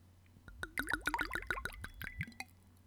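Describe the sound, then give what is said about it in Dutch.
Spanish date liqueur from Elche, Grano de Oro, glugging from a bottle into a glass, a quick run of rising, bubbly gulps over about two seconds, fairly loud, with no talking. “Daar had ik een, eh, een Spaans liqueurtje voor, uh, voor staan, voor de winnaar. Nou, laat ik dat nou zelf zijn. Ehm, dus ik heb hem even opengetrokken.”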